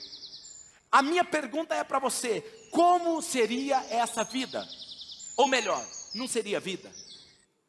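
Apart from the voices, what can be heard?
birds singing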